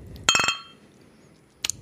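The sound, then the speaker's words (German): Glasses clink together in a toast: a quick cluster of bright, ringing clinks near the start, then a softer single clink a moment later, with no talking. “So, und jetzt Prost.”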